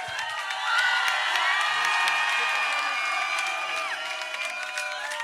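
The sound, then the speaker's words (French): A loud, sustained crowd roar of cheering and high whoops as an audience makes noise for the manager, many voices shouting together continuously for several seconds, with scattered clapping mixed in. “Faites du bruit pour le manager, s'il vous plaît”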